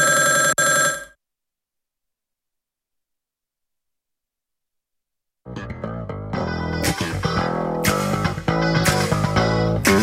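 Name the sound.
telephone ringing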